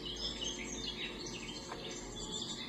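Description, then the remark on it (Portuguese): A quiet, steady chorus of a flock of many small birds flying west, chirping and twittering at once, blending into a busy high-pitched texture that carries on throughout with no voices. “Um bando de pássaros voavam para o oeste, partindo daqui.”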